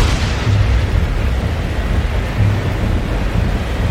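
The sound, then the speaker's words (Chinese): A loud, sustained rumble of thunder fills the whole stretch, deep and roiling with a hiss of storm noise over it, swelling slightly in waves without any voices. “刹那间，风云密布，狂风暴雨，天摇地动，雷公细呐！”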